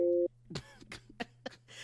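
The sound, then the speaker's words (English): A loud, steady telephone dial tone on a Skype call sounds for a brief moment, then cuts off abruptly, followed by scattered voices and laughter over a low, constant hum. “Why did they add a dial tone to, you know what?”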